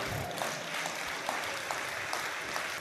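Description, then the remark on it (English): An audience claps together in praise to God, a dense, steady wash of many hands at moderate volume, with no talking heard over it. “Say amen and give God a hand clap of praise.”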